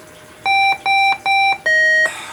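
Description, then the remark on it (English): A video game's electronic beeping tone: three identical, evenly spaced bright beeps followed by a slightly lower, longer fourth beep, loud and clear with no talking. “the beeping sound you're probably going to hear in a second”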